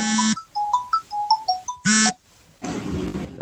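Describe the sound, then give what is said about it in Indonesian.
A phone ringtone plays: loud buzzy tones and a quick run of short melodic electronic notes, followed by a rougher, noisy burst. No one speaks. “sorry ada telepon tadi”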